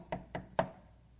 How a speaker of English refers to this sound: Now, unfortunately, in the book of Revelation, chapter 3, we notice there that there's a, the Lord standing knocking. Knocking. He's knocking.